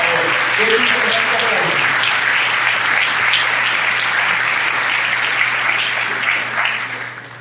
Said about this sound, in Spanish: Así que considero que usted se merece un fortísimo, fortísimo aplauso de autorreconocimiento.